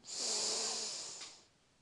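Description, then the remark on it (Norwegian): A long, deep inhale drawn in through the nose, breathy, with a hissy airflow that swells then tapers off after about a second and a half, the last round of a breathing exercise. No talking. “Pust godt inn med nesa.”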